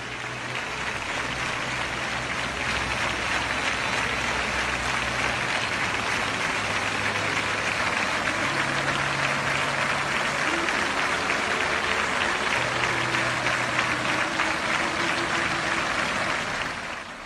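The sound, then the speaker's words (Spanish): A large crowd of citizens of Granada applauds steadily and continuously in a spontaneous tribute to Jesús Candel after his death, a dense wash of clapping that holds at an even, full volume throughout before tapering slightly at the very end, with faint low tones underneath. “¿Qué es este aplauso, Paloma, y, dónde es esto?”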